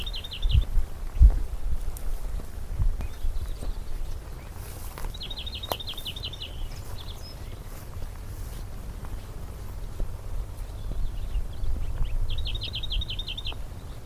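A bird sings a short, rapid phrase of repeated high notes, pausing between repetitions, recorded outdoors over a steady low rumble of wind or background noise.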